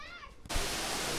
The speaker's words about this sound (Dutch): Ja, we staan nu in het hart van, het, eh, ja, van de tunnel. En eh, je hoort waarschijnlijk de waterval, dus ik hoop dat we te verstaan zijn.